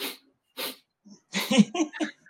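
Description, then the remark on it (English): Two quick, airy sniffs through the nose, evenly spaced about half a second apart, followed by a cluster of short, louder breathy and voiced bursts. “okay, and we usually do that when we when we uh, maybe have a we have a cold and we don't want to blow our nose yet, and we start to sniff, which is a very annoying sound to me.”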